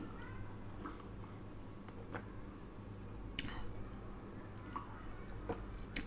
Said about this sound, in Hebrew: עכשיו אני עוצרת רגע, תנחשו למה, נכון, כי אני רוצה לשתות ואני לוגמת מים עם הלוברה.